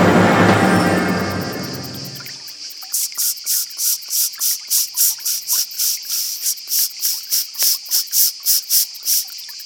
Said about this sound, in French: Je t'ai mis des cigales si tu voulais des cigales.